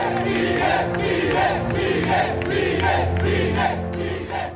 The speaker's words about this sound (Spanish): En la escena final, los seguidores de Milei le presentaban una maqueta del Banco Central y un martillo como el del dios nórdico Thor. Mientras Milei la destrozaba, ellos gritaban.